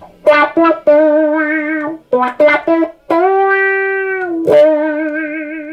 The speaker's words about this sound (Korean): 와와라는 페달인데요. 네. 음, 그러니까 기타의 이 중음대역을 변화시켜서 어, 꼭뭐 애기 우는 소리라는 별명도 있고.